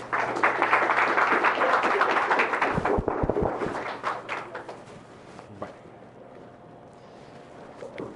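An audience applauds to welcome speaker Dr. David Lezama del Valle, a dense wash of clapping that holds strong for about three seconds, breaks into a few scattered final claps, then fades into a low, steady background hum.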